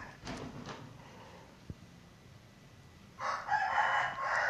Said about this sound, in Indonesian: itu suara jago ayam jago karena ini pagi hari ya banyak aktivitas ya di sekeliling sini ya